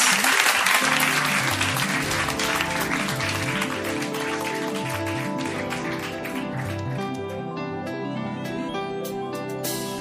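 A live audience claps steadily and loudly for the full stretch, a dense crackle of many hands, while sustained musical tones from a band ring out beneath it.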